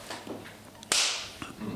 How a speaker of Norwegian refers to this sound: Jeg har begynt recordinga, så okay, ja. så kan du klappe en gang.